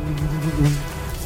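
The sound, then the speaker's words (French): A bee buzzes steadily, a continuous droning hum of beating wings that wavers slightly in pitch and loudness throughout. “Ah, vous reconnaissez ce bah oui. des ailes.”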